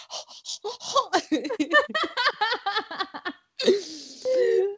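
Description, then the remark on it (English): A voice mimics heavy, excited breathing with quick rhythmic huffs, which break into choppy laughter and end on a long breathy gasp. “it just starts with …'s breath”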